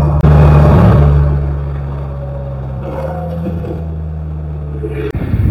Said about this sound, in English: We're alive running along the mountains of Red Rock in Summerlin, Nevada. I'm testing out the uh, 2022 uh, Polaris Slingshot.